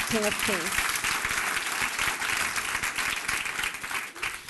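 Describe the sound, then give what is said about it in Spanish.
A large audience at a church worship service applauds the King of Kings loudly, a dense, steady roar of clapping that fills the whole stretch, with a brief voice calling out near the start. “él es fuerte aplauso al Rey de Reyes.”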